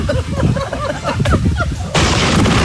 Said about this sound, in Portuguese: Um raio atingiu o solo apenas alguns quilômetros de distância do casal, logo após ao lago que estava de fundo para o altar.